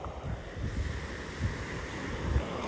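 Ocean surf rolls and breaks steadily, recorded outdoors facing the ocean, while wind buffets the microphone, a continuous broad rushing wash with low rumbling gusts and no voices.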